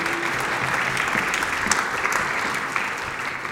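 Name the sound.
audience applause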